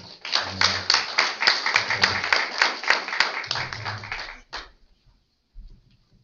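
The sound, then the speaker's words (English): A church audience applauds with dense, steady clapping for about four and a half seconds, then it stops abruptly, leaving quiet with a faint low murmur. “Can we can we give these guys a round of applause?”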